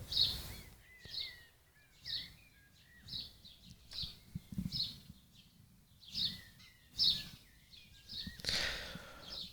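Repeated bright bird chirps and short whistled notes sound at a steady pace over a quiet low rumble with no one speaking.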